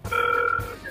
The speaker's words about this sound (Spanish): que sonó un teléfono. Eso fue un teléfono. Sí, escuché algo ahí.